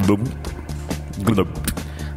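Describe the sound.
Wet, gurgling sloshing of water in a full belly as the belly is moved, coming in a few short surges, moderately loud, with voice-like murmurs and breathy vocal sounds running underneath.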